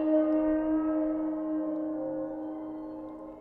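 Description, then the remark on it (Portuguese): Sustained eerie tones of a waterphone, the instrument invented by Richard Waters, ring out together, metallic and wavering, with a dense cluster of long overtones that hum steadily and fade slightly, no voices present. “Ele se chama Waterphone e foi inventado pelo Richard Waters.”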